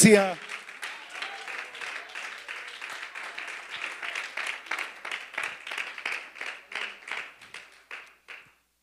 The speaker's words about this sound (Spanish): Y si ese aplauso es para Él, acompáñalo con alabanzas de tu boca dirigidas al trono de la gracia.